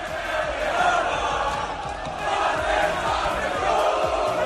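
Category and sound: crowd, football stadium crowd cheering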